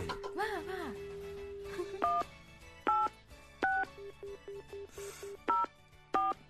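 A rapid series of telephone keypad tones as a listener's number is dialed on the TBS Radio show Azumi Shinichiro no Nichiyou Tengoku, about a dozen short beeps in uneven rhythm, clear, over a faint background bed with a brief tone flourish at the start.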